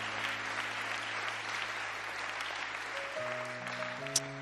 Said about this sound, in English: If you are a guest here tonight, welcome to the friendliest church in town. Welcome to the family, huh? Can we give them a hand clap if we have some guests here? Yeah, welcome.